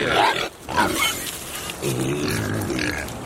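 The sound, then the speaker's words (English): Several pasture-raised pigs grunt and squeal eagerly at feeding time, a busy overlapping chorus of snorts and throaty grunts with no pauses, like a group crowding in at a trough. “Time to feed the pigs.”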